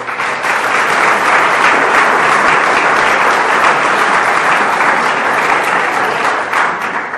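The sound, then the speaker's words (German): A crowd claps steadily for several seconds to welcome 13 visitors from Scotland, a dense, even wash of many hands with no pauses, holding at a consistent loud level throughout. “Vielleicht ein Applaus für.”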